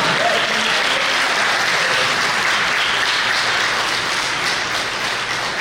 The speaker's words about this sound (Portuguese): Vamos aplaudir o Senhor Jesus pela vida dos adolescentes e jovens, vamos!